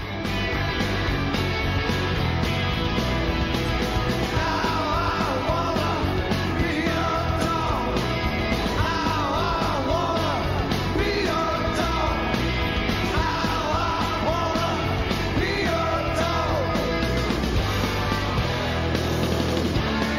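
A live rock band plays a cover version at a 1987 concert, continuously and loudly, with dense guitars, drums and a shouted vocal line over the full mix, the crowd-filled sound steady throughout.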